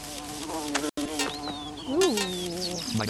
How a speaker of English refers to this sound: I do like the sounds. In hey! The wasps have a relatively low chance of hitting you, but they can.